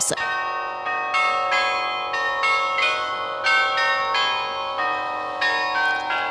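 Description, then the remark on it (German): The carillon of the town of Aarau plays a melody, its bells striking one after another in a steady tune, each note ringing bright and sustained with long overlapping resonance. No voices, just the bells, clear. “So hoffen wir, dass wir die schönen Melodien vom Aarauer Glockenspiel noch lange in der Stadt Aarau hören dürfen.”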